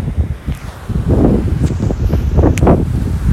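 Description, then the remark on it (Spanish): Steady, loud rush of wind buffeting the microphone over a low, churning roar of ocean surf, with swells of noise rising and falling and no voices. “Gracias a todos ustedes que se ponen a escuchar esta voz y este océano.”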